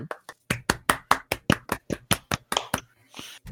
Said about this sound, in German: Applaus bitte.